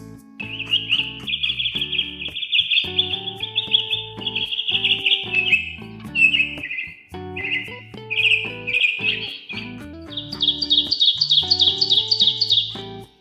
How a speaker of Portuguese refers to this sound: Ouviam-se apenas o gorjeio dos passarinhos.